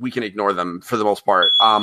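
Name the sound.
smoke alarm beeping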